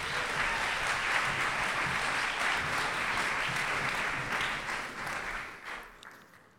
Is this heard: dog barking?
no